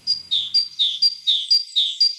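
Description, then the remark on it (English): A forest bird sings a clear, high-pitched song, alternating steady whistled notes with quick downward slurs in a brisk, regular rhythm. It is fairly loud, with no other sounds. “let's listen to a forest bird.”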